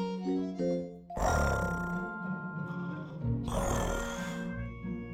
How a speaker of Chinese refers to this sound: 温妮也打起了呼噜。